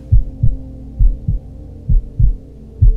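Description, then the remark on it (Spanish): A steady heartbeat thumps in low, muffled double beats, lub-dub pairs repeating about once a second over a soft continuous hum, with no voices present. “Escucha el latido de tu escucha el latido de tu vida, de tu existencia.”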